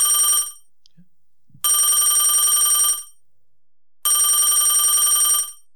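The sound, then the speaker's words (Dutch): A telephone rings loudly in three long bursts separated by pauses, a steady repeating electronic bell tone with no talking over it. “hey, wat hoor ik nou? Hoor je dat ook?”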